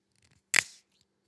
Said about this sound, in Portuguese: Mas olha, tinha aqui uma água das pedras, uma real água das pedras, que vou desde já abrir.